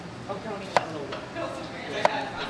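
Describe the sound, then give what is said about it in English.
A knife chops vegetables on a cutting board in a slow, unhurried rhythm: two sharp, crisp knocks and a fainter one in between, over a soft murmur of background voices. “Are you listening to the chopping?”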